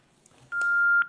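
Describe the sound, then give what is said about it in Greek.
A steady electronic telephone tone starts abruptly and holds for about half a second, followed by a brief burst and a short chirp, clear with no talking. “Ναι ρε φίλε, το ωραίο τηλέφωνο αυτό.”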